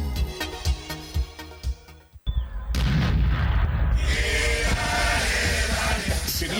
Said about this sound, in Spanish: el cielo tiene que explotar como todos los años. Compra tus fuegos artificiales en Mundo Pirotécnico